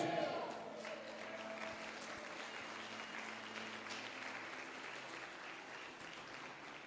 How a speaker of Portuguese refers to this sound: Quem está comigo, dá um glória a Deus e um aplauso a Jesus.